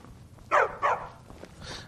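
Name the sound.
dog barking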